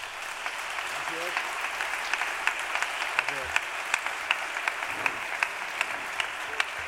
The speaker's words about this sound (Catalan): Toni Porcar, un fort aplaudiment.